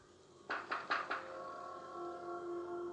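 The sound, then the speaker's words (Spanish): Four quick knocks by a teenager on a doll's glass display case in a museum, in a rapid cluster, followed by a faint sustained ringing tone that lingers after the raps stop. No voices. “un adolescente que visitaba el museo en compañía de su novia, se burló de la muñeca y comenzó a golpear la urna.”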